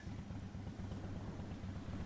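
A big motorcycle rumbles loudly and steadily as it drives past, its deep throbbing engine note holding even throughout with no voices.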